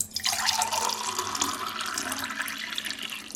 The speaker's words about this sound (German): Hier kommt das Wasser hinein.